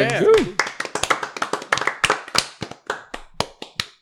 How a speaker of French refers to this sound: C'est une mode, genre, on se casse, on applaudit toujours après une chronique. On dirait. pas, Ah, ben on a toujours fait ça sans réellement se poser une de questions.